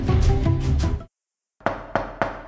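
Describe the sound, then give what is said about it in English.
After a dense swell of sound cuts to silence, three firm knocks on the door of a room ring out in a quick, uneven sequence, fairly loud. “There was a knock at the door.”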